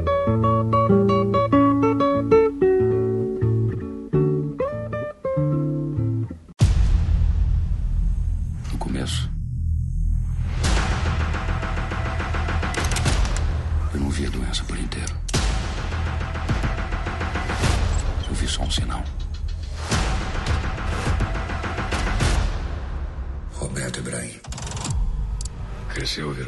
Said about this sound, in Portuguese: Vamos ouvir então um trecho aí do trailer de O Mecanismo em março no Netflix.